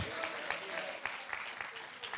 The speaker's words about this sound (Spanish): Vamos, un aplauso fuerte a Jesús.